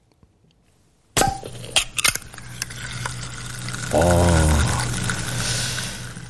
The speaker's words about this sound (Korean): 그 음료수 깡통을 딱 따가지고, 예, 이게 붙는 소리죠. 예. 이게 보물소리입니다.